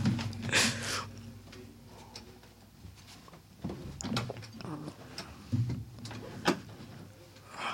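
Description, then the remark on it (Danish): A studio door is handled and pushed shut, with scraping, creaking movement followed by a few soft knocks and clicks, then quiet room noise. “Jeg kan se, at vi har glemt at lukke døren ind til studiet. Det gør jeg lige.”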